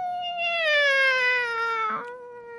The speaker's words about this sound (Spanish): Y otra vez volvió a maullar más triste y solo que nunca.